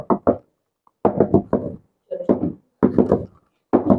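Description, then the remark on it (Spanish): Fairly loud knocking on a hard surface at a steady 60 beats per minute, falling into short clusters of several raps that recur roughly once per second, like a heartbeat rhythm, with brief silences between groups. “Este ritmo es 60 latidos por minuto.”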